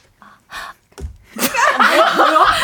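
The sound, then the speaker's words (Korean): A few short, harsh breaths puff loudly into the microphone, then give way to breathy, gasping laughter with vocal tones that keeps going to the end. “숨소리가 굉장히 격하시네요.”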